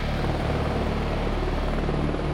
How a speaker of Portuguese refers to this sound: O piloto consegue pousar o helicóptero na marginal Tietê, uma das vias mais movimentadas de São Paulo.